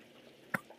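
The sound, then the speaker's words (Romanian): A single sharp plop of water splashing onto a person, followed a moment later by a fainter drip, over a quiet background with no talking. “A, și da pe mine apă.”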